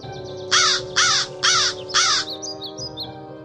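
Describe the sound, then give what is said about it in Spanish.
A crow perched on a branch in a forest caws four times in a steady rhythm, loud, followed by fainter high bird chirps against a low background hum. “Paseando, vi a un cuervo que estaba sobre una rama.”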